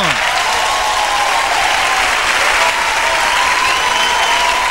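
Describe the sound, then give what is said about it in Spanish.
Loud, sustained applause from a crowd, a dense steady wash of clapping that holds at an even level for about five seconds with no voices standing out. “aplausos por favor.”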